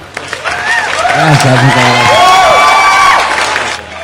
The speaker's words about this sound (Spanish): Un fuerte aplauso para nuestro operador